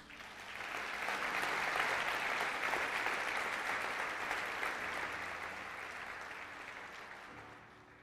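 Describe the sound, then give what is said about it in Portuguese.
A church audience applauding Jesus, a dense, sustained wash of clapping that swells in within the first second, holds steady, then gradually thins and fades toward the end. “Pode aplaudir Jesus.”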